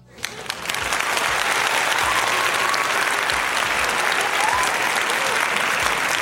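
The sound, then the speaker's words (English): A crowd bursts into sustained, loud applause with scattered cheers and whoops, dense clapping filling the space steadily for several seconds without letting up. “See, you, done, you done got them wild up again”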